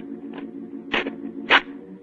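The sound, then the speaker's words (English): A match is struck with short, dry scratching rasps, two distinct strikes after a faint first scrape, over a low steady hum. “I'll strike a match.”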